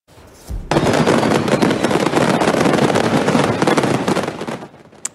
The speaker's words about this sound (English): Not a celebration. A fire at a fireworks factory in Russia resulted in a spectacular scene. The Russian Ministry of Emergency Situations, yes, there is such a thing, says the incident took place this morning